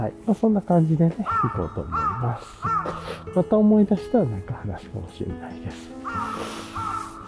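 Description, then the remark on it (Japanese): Crows caw repeatedly in the background, several harsh calls spaced a second or two apart, while a person talks steadily over them in the foreground. “さてさて、なんかめっちゃカラス鳴いてます。”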